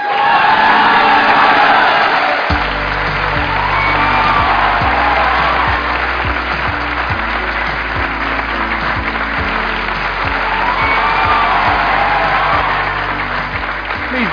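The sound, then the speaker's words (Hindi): Loud, sustained applause with crowd cheering and whoops welcoming entrepreneur Ritesh Agarwal from backstage, a dense wash of clapping lasting throughout, joined after a couple of seconds by a steady low musical beat underneath. “in fact he is one of the youngest self made billionaires of India please get an energetic and warm welcome to the one and only Ritesh Agarwal”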